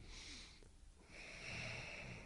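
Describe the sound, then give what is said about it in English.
A person demonstrates yoga ujjayi breathing: a short, raspy, ocean-like breath, a brief pause, then a longer hissing breath drawn through a constricted throat. “if it's ujjayi breathing, right?”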